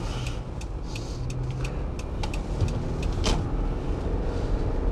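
A car drives steadily over a grippy, packed-snow road, its engine and tyres giving a constant low rumble, with scattered sharp crackles and crunches on top. No one speaks.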